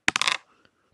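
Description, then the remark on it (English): Small hard dice roll off a table, clattering in a quick burst of sharp, loud clicks, then fade into a faint rattle with one last soft tap. “Dice roll off the table.”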